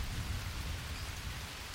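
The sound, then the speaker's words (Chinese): Steady, dense heavy rain pours down in front of a classroom building with a continuous hiss, backed by a low rumbling undertone. No one speaks, and the downpour keeps an even loudness throughout. “他却伸手去接雨水”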